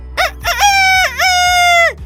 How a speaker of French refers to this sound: Voici TikTok le coq.